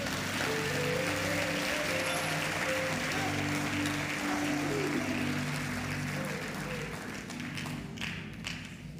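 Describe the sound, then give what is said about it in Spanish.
Loud, steady applause for the Lord from an audience fills the whole stretch, a dense wash of clapping with faint sustained tones underneath, tapering slightly toward the end. “Aleluya, un aplauso fuerte al Señor.”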